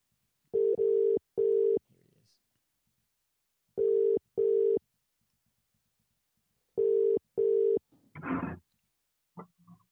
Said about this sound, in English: We'll uh we'll get the phone ready. We'll get him ready to rock and roll. And I think he's coming on. Phone should be dialing.